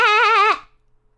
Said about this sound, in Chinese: 小羊们有了安娜的陪伴，开心极了。咩咩咩！